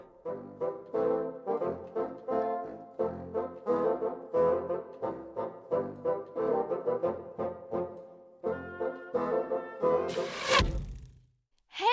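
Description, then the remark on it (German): An arrow, lost when someone slipped, whooshes in through the window of a music school near the end: a single sharp, loud swish with a brief thunk, following a long stretch of steady tonal, voice-like sound. “Der, der fliegt geradewegs beim Fenster der Musikschule rein.”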